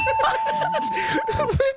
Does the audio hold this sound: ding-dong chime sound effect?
yes